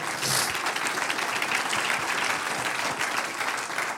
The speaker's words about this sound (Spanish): Denle un aplauso al Señor.